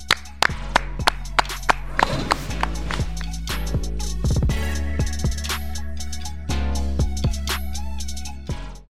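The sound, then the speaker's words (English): Sharp, rhythmic hand claps ring out in a steady beat over a bright musical backing, the claps loud at first before the music carries on alone. “Clap, Clap it, up.”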